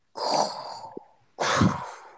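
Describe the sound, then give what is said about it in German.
A voice imitates heavy, rasping masked respirator breathing: two long hissing breaths, an inhale then an exhale, fairly loud with a short pause between them. “ich hatte als kleines Kind immer Angst ähm, vor Darth Vader. Vor diesem ja. Atmen. Ja, dieses Atmen.”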